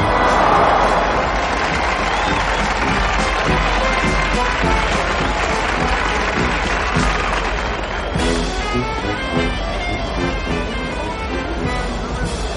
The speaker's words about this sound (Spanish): La gente le aplaude con fervor, animándole a arrimarse más al toro.